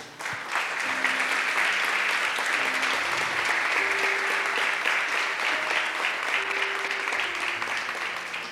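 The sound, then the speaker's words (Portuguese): Sustained applause from an audience fills the whole stretch, a dense, steady clatter of many hands clapping at even loudness from start to finish, with faint tonal hums underneath. “Vamos aplaudir, que é bom.”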